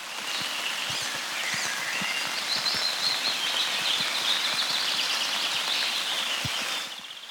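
Gentle summer rain patters steadily, a soft continuous hiss scattered with light drops, while faint high bird chirps drift through the background. No one speaks.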